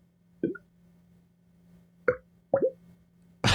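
Liquid glugs from a bottle tipped bottom-up while someone drinks, suction making the noise as air fills the empty space: three hollow, gulping plops at uneven intervals, fairly quiet over a steady low hum, ending in a sudden burst of noise.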